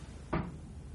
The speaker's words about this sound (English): Someone knocking?